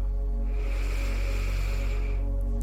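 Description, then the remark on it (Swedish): A slow, deep inhalation during a guided meditation breathing exercise: a soft, steady airy hiss that swells in and holds for about two seconds, over a low constant hum, with no talking. “Andas in igen.”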